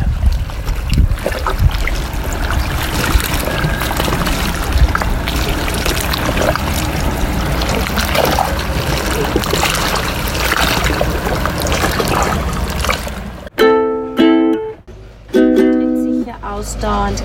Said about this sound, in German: Und ich bin bei Hydra an einem kleinen Strandabschnitt und mache ein bisschen Frühsport und wollte euch diese Wellengeräusche einfangen. Die See ist ganz ruhig und plätschert etwas gegen die Steine.